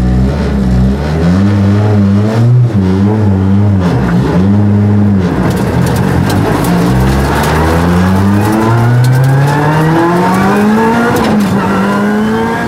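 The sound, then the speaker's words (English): An R5 rally car engine revs hard, pitch rising and dropping through quick gear changes before climbing steadily in a long acceleration, loud and raw with no talking. “Got a cracking show coming up this week, folks, but just for now, just enjoy the noise of an R5.”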